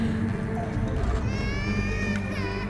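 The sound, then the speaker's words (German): A baby's thin, wailing cry rises and falls in drawn-out tones over a steady low rumble, coming in from about halfway through. “Na, da schreit doch ein Baby.”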